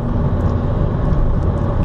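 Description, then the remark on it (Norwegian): Steady low rumble of a car driving, engine drone and road noise filling the space evenly and fairly loud, with no voices or distinct events. “Men eh, jeg eh, litt usikker på hvordan eh, opp opptaket blir når eh, jeg kjører bil.”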